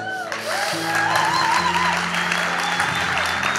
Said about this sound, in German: Das erste Projekt kommt vom Kinder-ICF und begrüßt mit einem tosenden Applaus den König des Kinder-ICFs